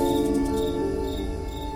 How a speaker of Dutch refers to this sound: De volgende dag werd iedereen wakker van allerhande natuurgeluiden die in Schemermeer weer klonken. Wat is dat met die krekels, zeg?